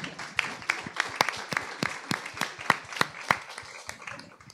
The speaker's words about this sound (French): Ok, merci. On peut déjà les applaudir. Merci.